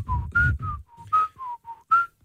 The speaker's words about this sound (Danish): vi er enige om, at både mænd og kvinder kan fløjte melodier